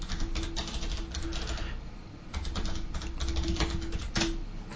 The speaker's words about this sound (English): You typing is very loud. oh, I'm sorry, guys. I forgot that, like, you know, I have this really great keyboard that it's like a mechanical keyboard, so I like feeling the typing.